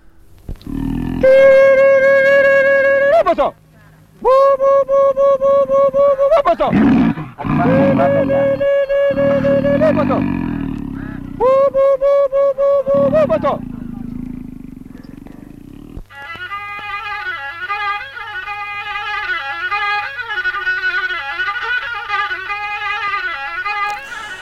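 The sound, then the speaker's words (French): Violin playing loud, sustained bowed notes in several separate phrases with short pauses, then a long wavering passage of slurred notes with vibrato-like bends, played to give hunters courage before they set out on a hunt. “ce violoniste, est-ce que vous pouvez nous dire quel est son rôle”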